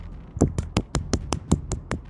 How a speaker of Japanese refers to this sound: 先日あるドラマの話がありましてなんと撮影してきました拍手